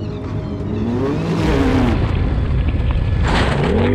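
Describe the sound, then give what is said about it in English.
A rally car's engine revs hard, pitch sweeping up and down with gear changes, loud and continuous over a rumbling, gritty background of wind and road noise, in the desert during the 2022 Dakar Rally in Saudi Arabia. “Immersive audio experience of the world’s toughest off-road endurance event”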